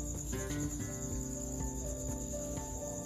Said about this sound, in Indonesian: mohon maaf yang sebesar besarnya jika ada suara jangkriknya lebih kencang daripada suara aku tapi tidak apa-apa ya namanya begitu ya namanya di kampung ya seperti itu gitu